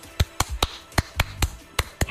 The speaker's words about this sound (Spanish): Bueno, qué mal aplaudo, pero vamos, que esto sirva como pista.